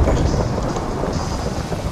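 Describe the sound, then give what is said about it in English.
A video game hailstorm created with a weather command: a dense, steady clatter of falling hail over a deep, continuous thunder rumble, loud, with no voices. “Storm create hail. We have hail now.”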